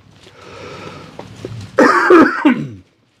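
A loud bout of throat clearing with rough coughs, a few harsh bursts in quick succession after a quieter lead-in, ending abruptly in silence.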